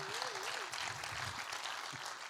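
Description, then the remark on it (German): Audience applause for two people invited up to speak fills the moment with a steady, dense wash of clapping hands, even in level throughout, with a faint wavering tone briefly audible underneath at the start. “Ihr dürft ihm mal einen Applaus geben.”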